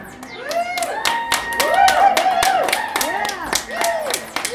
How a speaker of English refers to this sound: But now, it's time to rock and roll as we bring you live music and an interview via a podcast disguised as a radio show, now live, in front of an audience. That's you. You can applaud if you want.